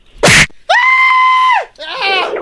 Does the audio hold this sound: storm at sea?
no